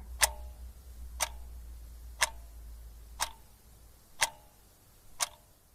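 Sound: clock ticking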